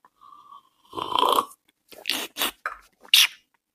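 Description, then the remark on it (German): Hissing slurps of olive oil drawn through the teeth while tasting it, as with wine: one long airy suck, then several short sharp sucking bursts, with no talking. “Also ähnlich wie bei Wein, man zischt es so durch die Zähne und, und äh, kaut das so ein bisschen und ähm, schmeckt man es.”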